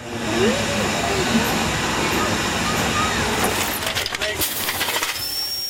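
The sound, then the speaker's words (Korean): A steam locomotive on the Strasburg railroad in Pennsylvania, the oldest railroad in the US (opened 1832), carrying tourists on a 7 km ride, rolls along the rails, its loud, steady roar and hiss filling the scene, with a burst of rapid rhythmic clattering and chuffing toward the end. “하지만 여전히 이 증기기차를 타볼 수 있는 곳이 있다고 합니다.”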